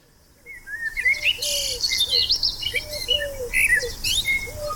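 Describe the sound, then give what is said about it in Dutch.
A common blackbird sings a rich, fluting song of varied warbling phrases, clear, with other bird chirps, including a pigeon calling, scattered around it and soft outdoor ambience underneath. “Ik heb een merelgeluidje voor je klaargezet”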